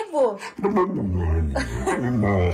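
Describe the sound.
An Italian dog in a video vocalizes in a continuous run of whiny, howl-like sounds, its pitch sliding up and down in a chattering, almost talking rhythm.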